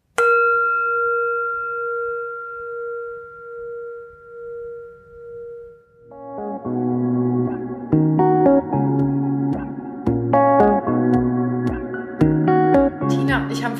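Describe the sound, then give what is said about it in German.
A single mindfulness gong is struck and rings out with a long, steady, shimmering tone that slowly pulses as it fades, before layered music with a rhythmic beat takes over. “Deswegen, wenn es dir möglich ist, such dir mal kurz einen ruhigen Ort, schließ die Augen und nimm mit diesem wundervollen Gong drei ganz tiefe Atemzüge.”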